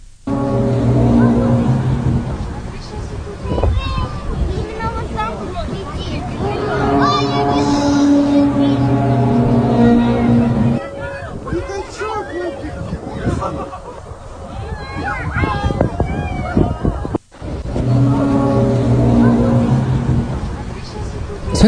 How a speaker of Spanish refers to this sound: Por aquí les dejo uno de Rusia, justo. Ahí les va. Dice ruido extraño en el cielo y ovni. Ahí les va.